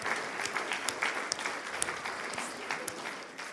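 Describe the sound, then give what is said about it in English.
A standing audience applauds to honour two people for what they have done over the last 10 years: a dense, steady patter of many hands clapping at once, holding at a fairly even, moderate level for a few seconds with scattered sharper claps standing out. “And if you're at home, you can put some clapping on the chat.”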